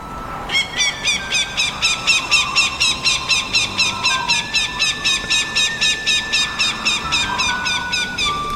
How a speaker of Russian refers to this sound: собственно, можно уже музыки не дожидаться, вот по крику птицы.